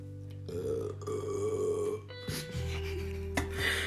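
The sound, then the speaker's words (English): A long, drawn-out burp, deep and rumbling, stretching over several seconds with a couple of gurgling shifts in pitch and no talking. “hold on, I need to burp.”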